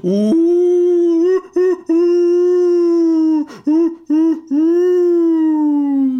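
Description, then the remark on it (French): Wolves howl in long, sustained, loud cries, with a few brief breaks where the howls dip and restart. No one speaks. “Et donc arrive euh, de Francfort ou d'ailleurs une meute de loups.”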